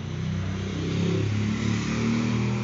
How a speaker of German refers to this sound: das war jetzt gerade ein lautes Motorrad. Wow, also die ganze Stadt hier will meinem Podcast mit dabei sein irgendwie.